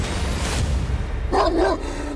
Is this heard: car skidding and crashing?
no